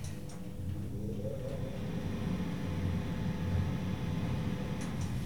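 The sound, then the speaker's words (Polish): A steady, droning ventilation fan hums inside a moving elevator car, a constant low rumble with a faint tonal whine, running evenly throughout with no voices. “Tak, jedzie winda, teraz wentylator.”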